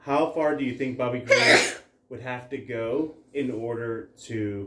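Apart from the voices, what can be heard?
sneeze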